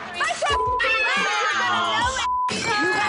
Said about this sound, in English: That's the glass throwing from last season.